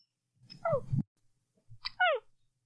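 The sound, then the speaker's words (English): A cat meows twice, two short descending calls about a second apart, fairly clear, with some soft low rustling underneath. “Gentle listeners, a cat.”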